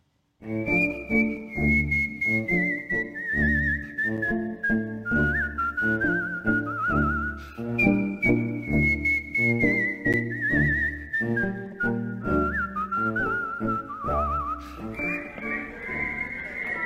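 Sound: human whistling a tune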